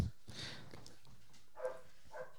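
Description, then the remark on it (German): A dog barks faintly, a few short, sharp yelps spaced about half a second apart against a quiet background. “was ist denn mit diesem Hund los?”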